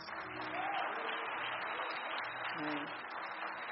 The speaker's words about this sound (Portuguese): Vocês podem ficar de pé, por favor? Que bênção. Queria que você desse uma salva de palmas.